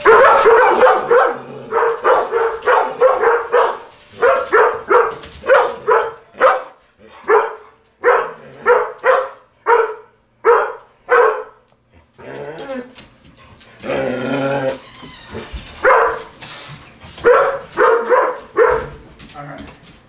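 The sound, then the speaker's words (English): Four collies run and bark excitedly in rapid, overlapping bursts, loud, pausing briefly before breaking into another frantic round of barks mixed with growls. “We needed the sounds of 4 dogs running and barking”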